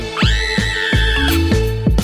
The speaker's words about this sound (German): Plötzlich guckt sie komisch und fängt an zu schreien.